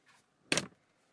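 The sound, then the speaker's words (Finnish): A studio control room door swings shut with one short, fairly loud thud and latch click, preceded by a faint brief rustle of movement. No one speaks. “Ja yhtäkkiä, otan ove vielä kiinni.”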